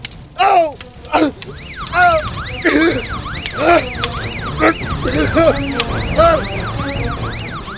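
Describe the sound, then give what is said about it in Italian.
A building fire alarm wails steadily throughout with a rapid rising-and-falling electronic siren tone, loud, while a voice lets out short exclamations over it. “Ci si mise poi anche l'allarme antincendio del palazzo.”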